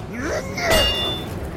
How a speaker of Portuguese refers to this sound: Lauren saiu da frente e Toque bateu o martelo no cabo. A espada espetou ainda mais o pilar, mas nada aconteceu. Ele bateu de novo.